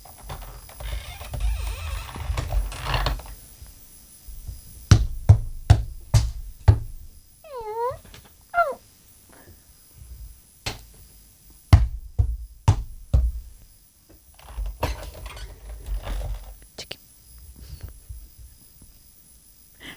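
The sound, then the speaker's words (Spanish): A series of sharp metallic clicks of a key turning in a lock, followed by a short, high, wavering squeak of an unoiled wardrobe door hinge, then more clunks and rattles. “No, no, la llave la he escuchado. El armario. No le he echado tres en uno.”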